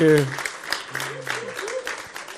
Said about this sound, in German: Welcome. Kleinen Applaus, welcome on stage.